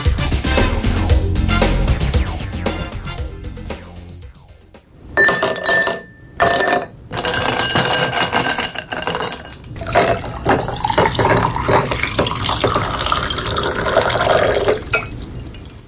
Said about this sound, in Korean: 네, 소리가 뭔가 시원한 느낌이 드시죠? 얼음을 유리컵에 담고 그 위로 물을 따르는 소리입니다.